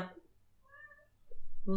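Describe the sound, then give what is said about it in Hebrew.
A huge cat gives one short, soft meow with a clear tonal quality in a quiet moment, with a person's voice briefly audible just before and after. “הוא לא צריך לקפוץ אפילו מהשולחן, פשוט עומד על הרגליים האחוריות שלו ונשאר על השולחן, כי הוא חתול עצום.”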